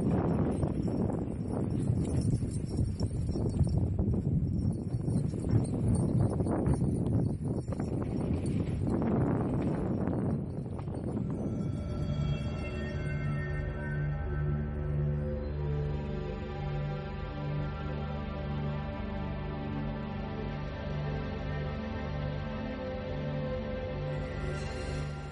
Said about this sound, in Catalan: Aquest so que heu sentit ara, aquest vent i aquestes cadenes, és la banda sonora del viatge del qual parlarem ara.